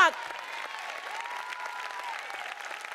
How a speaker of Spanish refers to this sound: Alguien puede aplaudir a Dios.